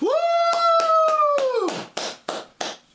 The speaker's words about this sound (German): Applaus für Bioshock Infinite.